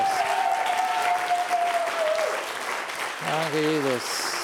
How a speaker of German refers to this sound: Lass uns äh, Gott einen Applaus geben für die Heilung. Danke, Jesus.